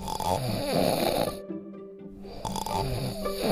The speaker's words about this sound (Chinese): 当他们来到草地上时，发现大野狼躺在大树下睡觉，呼噜声震得树枝直抖。